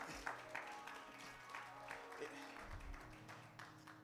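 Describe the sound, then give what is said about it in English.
A church audience claps together in a steady burst of applause lasting several seconds, giving a hand clap of praise during a service, with faint murmuring voices mixed underneath. “You can give God a hand clap of praise for that.”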